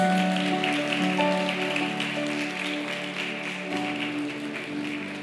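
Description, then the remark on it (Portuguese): A large crowd applauds the Lord, clapping steadily for several seconds, a dense, crackling wash of applause that stays fairly loud throughout, with sustained musical tones humming underneath. “Você pode aplaudir ao Senhor mais uma vez?”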